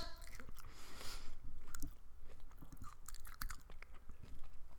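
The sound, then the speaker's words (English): A piece of crunchy food chewed right against the microphone for ASMR, with repeated wet bites and scattered crisp, crackly crunches over a steady rhythm, and no one speaking. “I don't know if this one has any crunch.”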